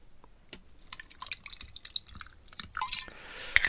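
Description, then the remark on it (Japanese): Busker Irish whiskey is poured into a glass, starting with scattered trickles and drips, then swelling into a steadier, brighter pour near the end. Quiet and with no voices. “ちょっと飲み物を、もう喉がね、カラカラだよ。”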